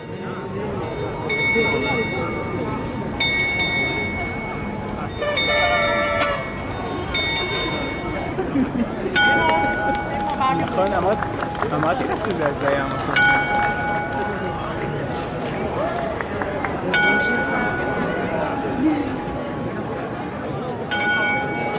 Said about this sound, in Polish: zegar wybija dziesiątą. Nie będziemy słuchać aż dziesięciu jego uderzeń, a ta melodyjka na początku e, to były właśnie te ruchome figury, które tutaj w takich okienkach nad tym zegarem astronomicznym się przesuwają